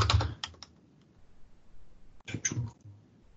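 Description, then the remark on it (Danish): Two short flurries of computer keyboard typing, fairly crisp, with rapid clustered key clicks separated by a quiet pause of about a second and a half, as expense amounts are typed into the expense lines of an application form. “Det er vigtigt her, at de ting, man taster i udgiftslinjerne, summer til det samlede ansigtebeløb, og det kan man se ved, at feltet bliver grønt.”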